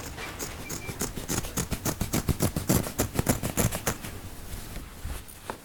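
A rapid, steady run of crisp scissor snips, about two dozen sharp clicks in a few seconds, then slowing and fading out. No voices.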